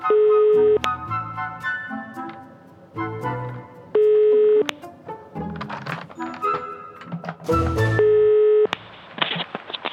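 A telephone ringing tone repeats at steady intervals through a receiver, each short burst followed by a pause filled with muffled background sounds, as a call waits to connect.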